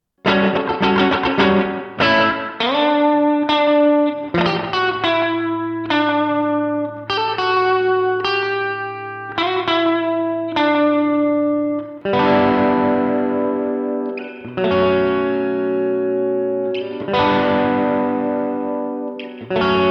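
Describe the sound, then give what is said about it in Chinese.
An electric guitar plays chords and melodic phrases through a tape delay effect chained before a reverb, each note trailing off in soft repeating echoes and a wash of ambience, with a steady sustained low note underneath for stretches. “好，我们来听听看，加上了延迟和混响以后的音色。”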